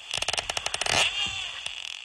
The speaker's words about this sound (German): So klingt es, wenn ein Schweinswal auf der Jagd ist oder einfach mit Artgenossen klönt.